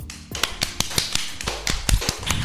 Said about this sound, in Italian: le facciamo un grandissimo applauso.